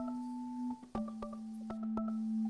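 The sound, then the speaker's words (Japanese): A recording glitch warps the sound into steady, buzzy electronic tones that hold and shift pitch, broken by sharp clicks and brief dropouts; no voices are heard. “ごめんまた軸の歪み発生してた もうこれはしょうがないこのアプリを使ってる以上、うん、解決の必要がないから”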